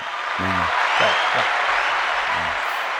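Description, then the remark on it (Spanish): Steady applause from a group, given as a farewell to a guest: a dense wash of clapping that holds at an even loudness throughout, with a few brief voiced sounds breaking through underneath. “lo despedimos a, a con un aplauso.”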